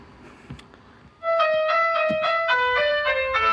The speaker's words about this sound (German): Äh, wollen Sie vielleicht noch einen kleinen Jingle spielen?